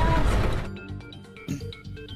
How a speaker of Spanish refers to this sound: Ay, padre amado, qué cosa. Oigan, ustedes escucharon el trancazo, ¿verdad? Se cayó un camarógrafo al piso.